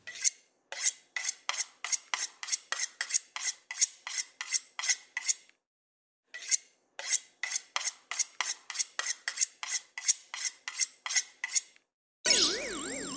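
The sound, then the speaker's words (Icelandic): A knife is drawn through a knife sharpener in quick, steady strokes, a bright rasping scrape about twice a second, pausing briefly before resuming. No one speaks. “Og við fáum svarið, þarna var verið að brína hníf með hnífabríni.”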